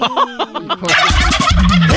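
A turkey gobbles in a quick, warbling burst, starting with rapid pulsed calls and swelling into a louder, rougher stretch with low rumbling beneath, fairly loud.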